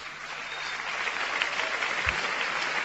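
Steady applause from a crowd, a dense, even patter of many hands clapping that holds at a constant moderate loudness for a few seconds, with a brief low thump near the end.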